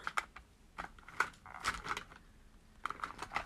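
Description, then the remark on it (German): Rummaging through a pile of pens and markers while searching for pens to draw with, with irregular plastic clicks and clatters in short bursts, a brief lull in the middle, and no voices. “Dann Suche ich schon, nur schon mal die ganzen Stifte raus.”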